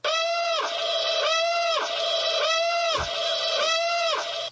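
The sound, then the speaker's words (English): A loud electronic Death Star Battle Alarm ringtone: a harsh, buzzy whooping tone that repeats about every half second, rising and dipping in pitch with no talking. “This is the Death Star Battle Alarm.”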